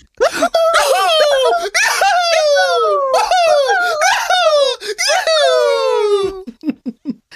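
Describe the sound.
A loud voice lets out drawn-out wailing screams, a closing scream meant to wake everyone up, four long cries each sliding downward in pitch, followed by a few short choppy bursts as it trails off.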